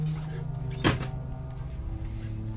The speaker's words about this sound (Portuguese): por favor, fechem essa porta!